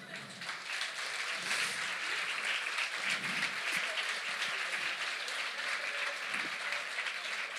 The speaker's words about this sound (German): Wunderbar, komm rauf. Applaus.